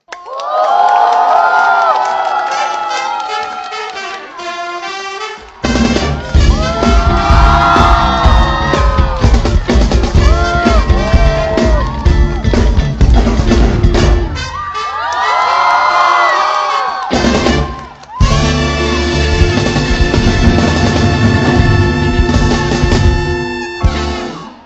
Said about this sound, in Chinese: 女士们、先生们，让我们掌声欢迎耿乐。